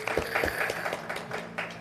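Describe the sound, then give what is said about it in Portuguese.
An audience claps in a steady, dense patter of applause that holds at an even level throughout, with faint voices mixed in underneath. “Muito obrigado, palmas para nosso.”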